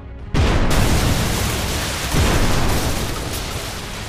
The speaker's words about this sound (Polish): Czyli wybuch, wybuch prochu. I to wybuch nie byle jaki. O godzinie 9 rano doszło do eksplozji kilkunastu albo kilkudziesięciu wagonów z amunicją do artylerii wielkiego kalibru.